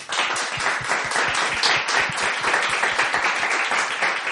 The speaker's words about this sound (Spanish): Darles un fuerte aplauso.